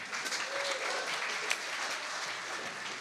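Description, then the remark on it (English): A crowd claps steadily at a reception, welcoming partner organizations and the state's tech councils, a dense, even wash of many hands applauding together at moderate volume, sustained throughout without pause or spoken words. “Welcome them to this event with me, if you would.”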